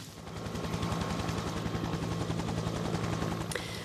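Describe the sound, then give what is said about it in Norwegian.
A helicopter standing ready on Fløyen for boarding, in rainy weather; its rotor chops steadily and loudly, a rapid even thumping over a constant engine whine, with no voices. “Helikopteret vårt det står klart oppe på, på fløyen.”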